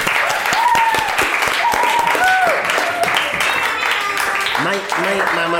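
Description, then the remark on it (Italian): Loud, sustained applause from a crowd, dense clapping throughout, with whoops and rising and falling cheering voices mixed in over the top. “beh questa rubrica è stata interessantissima non, no, un grande applausometro un grande”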